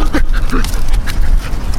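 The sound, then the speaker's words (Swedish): A dog whimpers and lets out a few short, high yips in quick succession, over a constant rumbling background noise. “Har hundarna? Vi har grejer här. Vår picknick är i fara.”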